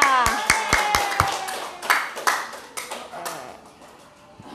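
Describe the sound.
Several hands clap for someone being praised, a quick, uneven burst of sharp claps, loudest at the start and then thinning into scattered claps, with children's voices chattering over them.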